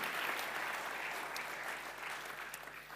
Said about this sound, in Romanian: Pentru că Domnul este bun și pentru că Domnul în urmă cu doi ani a făcut un miracol în locul acesta, haideți să aplaudăm miracolul Domnului în casa Domnului și să aplaudăm din toată inima noastră.